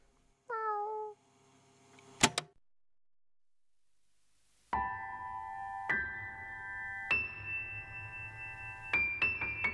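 A single short meow with a falling pitch from Archimedes the cat, then a sharp knock and a pause of near silence before steady, layered musical tones come in and build.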